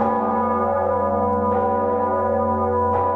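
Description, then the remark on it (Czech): The huge cathedral bell Zikmund, recorded in 1991 with its previous clapper, rings with a deep, rich hum and long sustained overtones, struck about twice at even intervals so each new strike blooms over the lingering resonance. No voices. “Takhle zněl Zikmund v roce 1991 s předchozím srdcem.”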